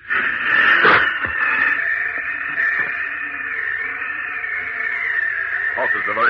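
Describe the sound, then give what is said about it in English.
Loud ragged gasping as people struggle for breath, a continuous strained wheezing hiss broken by a few sharp catches and heaves over several seconds. “They're gasping for breath.”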